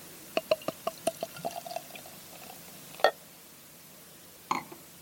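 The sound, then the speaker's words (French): Highly carbonated German-style Weiss wheat beer, just opened, fizzing: a quick run of crisp little pops and ticks, then a few sharper, scattered bursts over a quiet background, with no talking. “On peut l'entendre aussi, on a un taux de carbo qui est assez élevé.”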